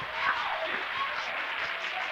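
A church audience claps their hands for Jesus in a dense, continuous wash of applause, steady and fairly loud for the whole stretch, with no clear individual beats standing out.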